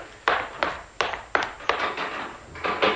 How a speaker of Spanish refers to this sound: El comisario Orozco da unos pasos rápidos que lo conducen hasta la puerta del cuarto, que abre con decisión, pero no cruza el umbral, sino que se vuelve hacia Rayo de Plata.